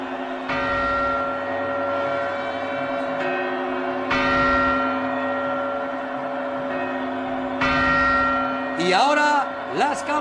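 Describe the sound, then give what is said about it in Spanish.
Deep church bell strikes ring out one after another, each broad harmonic clang decaying slowly into the next, with a steady background hum and a brief burst of crowd noise near the end. “campanadas.”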